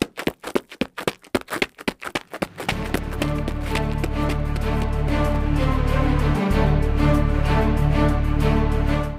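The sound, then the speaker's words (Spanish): Quick, evenly spaced footfalls of someone running away, fairly loud for a couple of seconds, then cut off as a sustained, full-bodied music passage swells in and continues. “Si eso es lo que yo creo que es, casi que os doy la bienvenida y me largo corriendo de aquí.”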